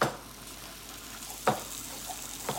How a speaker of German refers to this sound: In der Gastroküche vom Brunnerwirt schwenkt Sarah Fleischstücke in einer Pfanne.